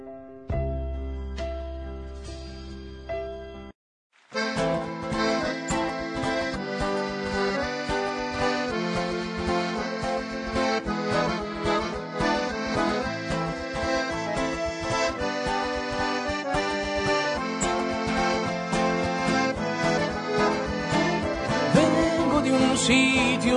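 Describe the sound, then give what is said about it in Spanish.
A folk paso doble-style song opens with a few sustained low notes, a brief pause, then a full, loud band bursting in with a steady, march-like rhythm; no voices. “Así que suena así, el género suena como a un paso doble folclórico.”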